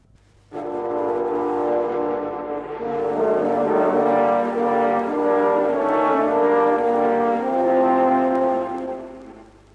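Orchestral horns play the wolf theme from Prokofiev's Peter and the Wolf: loud, dark, sustained brass chords that swell and shift slowly for about nine seconds, with no voices.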